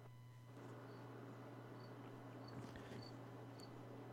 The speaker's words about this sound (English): I hear crickets. There are literally crickets in the background.